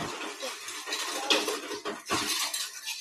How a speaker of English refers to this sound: Oh, that's just the ice machine. Sorry.